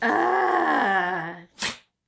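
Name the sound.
a sneeze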